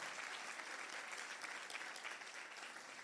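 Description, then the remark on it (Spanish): An audience at a Spanish-language morning church service claps for Jesus, a dense, continuous wash of many hands applauding at an even, fairly loud level for the whole stretch, with no voices standing out. “Vamos a dar un aplauso fuerte a Jesús si usted está recibiendo esa palabra.”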